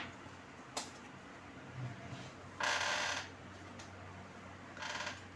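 Tarot cards being shuffled for a Leo reading: a quick snap, then two brief papery riffling bursts with quiet pauses between as two cards fall out, against a soft hum, with no talking.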